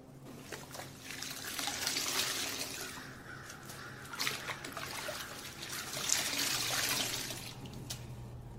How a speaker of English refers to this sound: No need in wasting this water. Might as well take me a poor man's bath and clean up these damn injuries.